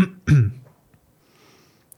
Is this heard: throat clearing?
yes